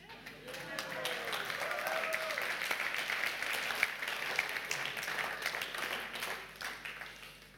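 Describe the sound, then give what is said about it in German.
Sustained applause from an audience, a dense wash of many hands clapping at steady volume for several seconds, with faint voices and cheers mixed in. “Applaus, Applaus.”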